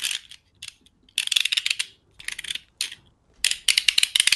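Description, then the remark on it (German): A ratcheting mechanism being wound up: bursts of rapid, bright metallic clicking in uneven spurts, pausing between turns, fairly loud with no voices. “Ja, warte, ich muss kurz aufziehen.”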